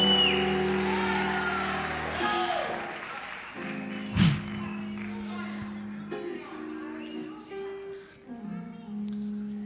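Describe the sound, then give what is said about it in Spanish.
An audience claps in a steady, moderately loud patter for several seconds, mixed with voices and sustained tonal sounds, with one sharp hit partway through. “Alguien puede hacer algo, un aplauso, algo.”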